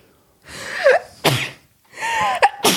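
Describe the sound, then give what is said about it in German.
Two loud sneezes in quick succession, each preceded by a sharp, rising intake of breath before the explosive burst, with no talking around them. “Gesundheit.”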